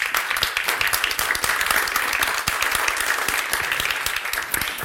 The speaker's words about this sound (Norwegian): Så en varm applaus til deltakerne.